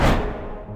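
A split-second burst of loud pop music, full and bright at first, then fading slightly before it cuts off abruptly. No one speaks over it.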